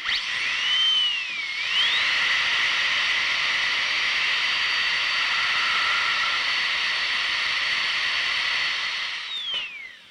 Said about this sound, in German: Sie haben richtig gehört, das ist ein Zahnarztbohrer.